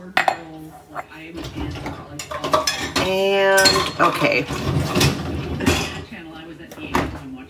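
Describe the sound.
Metal utensils, a ladle, a pot lid and drinking glasses clink and clatter repeatedly as a dishwasher is loaded, with a bright ringing tone midway, while a person speaks briefly.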